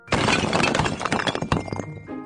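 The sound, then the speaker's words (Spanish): A loud crash of a large concrete block, moved by a crane at a construction site, smashing down onto a car, with breaking and shattering debris clattering for about two seconds before settling into a faint rumble. “¿Qué se cayó encima del coche? Una piedra súper grande, un bloque de hormigón, ¿verdad?”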